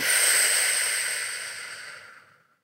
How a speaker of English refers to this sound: So completely focusing on your on your breath as you take a deep breath in and as you breathe out, one. Breathing in. Breathing out.